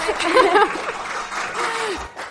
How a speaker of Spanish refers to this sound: Pues como podréis oír por eh, los aplausos de nuestro increíble público, eh, estamos grabando un episodio en vivo por primera vez desde eh, la tienda de cómics de Siete Héroes en Murcia junto al Zigzag.